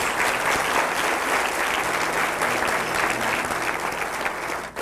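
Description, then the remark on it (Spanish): A church audience claps steadily for God, a dense, sustained wash of many hands applauding at an even loudness, with no voices standing out, before it cuts off abruptly at the end. “Aplaudamos a nuestro Dios.”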